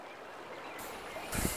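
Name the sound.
river water flowing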